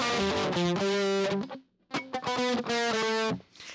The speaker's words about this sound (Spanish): Es un riffsazo.